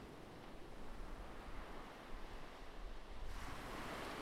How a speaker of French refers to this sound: Imagine les vagues sur la mer. Remarque le va-et-vient des vagues qui arrivent et repartent de la plate.